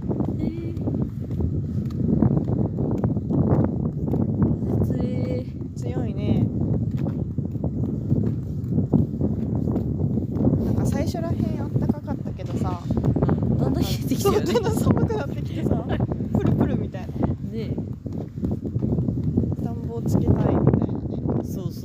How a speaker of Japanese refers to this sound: 風が強い